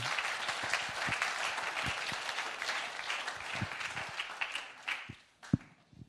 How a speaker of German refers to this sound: Lass uns Ihnen zum, wirklich noch zum Abschluss noch einen riesen Applaus geben. Danke, ihr lieben Kleingruppeleiter. Dankeschön.